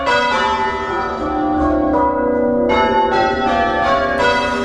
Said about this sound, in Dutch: Don Leonardo, pastoor in een statige buitenwijk van Firenze, is een grote fan van klokgelui. 200 keer per dag werd er enthousiast gebeierd in zijn toren. Dag en nacht.